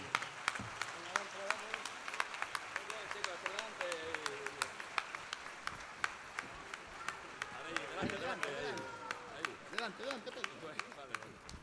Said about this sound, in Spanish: quiero pedir el aplauso más fuerte para nuestras próximas generaciones, para los murgueros más auténticos de nuestra murga, que son nuestros niños. Por favor, un aplauso para ellos que van a entrar a cantar con nosotros una canción.